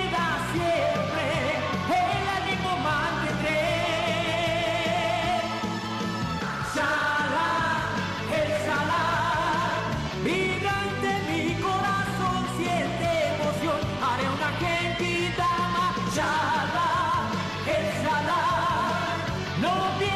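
The opening theme song of the anime TV series Dragon Ball Z plays loud and continuous: an energetic full-band arrangement with a driving beat, bright layered instruments and strong, almost shouted sung vocals carrying the melody.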